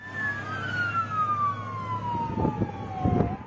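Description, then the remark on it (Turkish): Airport fire truck sirens wail with slowly falling, overlapping tones as the fire vehicles head toward the runway at the airport in Lima, Peru, joined by a low engine rumble and a few bursts of vehicle noise near the end; fairly loud and steady, no talking. “Havaalanı itfaiyesine ait araçlar sirenler çalarak piste yöneldi.”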